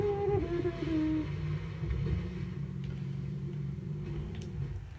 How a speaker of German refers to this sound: Gar keinen Bock mehr mit diesem dummen Auto zu fahren hier.